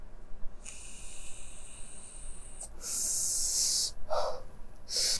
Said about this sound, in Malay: Ya, aku nak sedut pot jap.